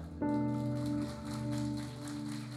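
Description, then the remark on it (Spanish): A crowd in a church imitates rain with their hands, making a steady rain-like patter, a dense, even rustle that swells slightly, heard alongside a sustained keyboard chord ringing underneath. “Vamos a hacer una vez más y cuando yo le diga hacemos los tres juntos y vamos a escuchar cómo llueve en la iglesia.”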